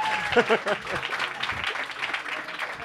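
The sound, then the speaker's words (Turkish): An audience applauds steadily for a few seconds, a dense wash of many hands clapping at once, with some voices and laughter mixed in near the start. “Bu Arkadaşlar bir alkışlayın, belki tedavi amaçlı.”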